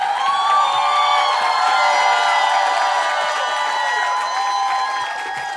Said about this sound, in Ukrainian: Для всіх, для всіх, хто були сьогодні на цій сцені, оплески, цьомчики і обійми просто шалені.